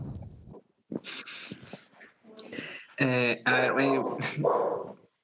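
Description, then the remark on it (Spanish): The speaker's dog barks a few times in loud bursts, with a person talking briefly before the barking starts. “voy a un toque mi micro, que empiece alguien, porque mi perro comenzó a ladrar un toque.”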